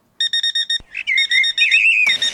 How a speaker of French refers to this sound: une petite sonnerie de réveil pour commencer cette journée, s'il te plaît